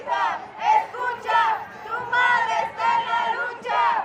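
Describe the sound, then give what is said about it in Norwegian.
A group of women, mothers searching for missing daughters and sons, shouting together in a protest march in the capital, calling out to a missing daughter that her mother is still looking for her. Their raised voices rise and fall in repeated rhythmic, chant-like bursts with crowd noise underneath. “Det roper kvinner i et protesttog i hovedstaden.”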